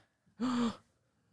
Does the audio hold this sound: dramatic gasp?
yes